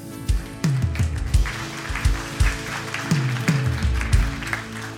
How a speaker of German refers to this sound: deswegen lasst ihn mit einem herzlichen Applaus willkommen heißen.